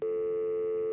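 A steady, mid-pitched electronic telephone tone holds unbroken for the whole second, the flat busy signal heard when a phone call cuts off. No voices.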